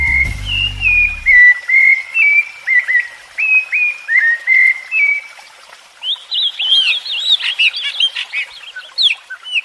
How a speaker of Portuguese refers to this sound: O canto dos pássaros é algo único na natureza. Para ouvir esses sons mais de perto, algumas pessoas criam aves como bichos de estimação.